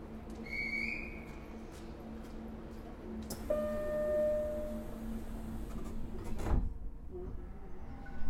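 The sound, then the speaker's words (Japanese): Doors of an express train bound for Hanabata closing: a steady electric hum runs under a short high whistle-like chime, a sharp click, then a longer tonal whine that ends in a heavy thud as the doors shut. “扉が閉めますご注意ください”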